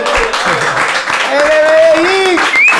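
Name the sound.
applause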